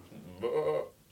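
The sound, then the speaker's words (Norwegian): A person imitates a sheep's bleat, a single short, muffled "baa" with a wavering, nasal tone, as if heard from behind a wall, fairly quiet and alone. “Fordi at det du sier nå, at jeg kan si til en maskin at det her, bæ, det er lyden av en sau.”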